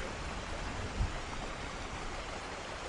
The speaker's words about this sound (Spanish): Llueve todo el tiempo. Afuera, tupido y gris. Aquí contra el balcón con goterones cuajados y duros que hacen plaf y se aplastan como bofetadas, uno detrás de otro.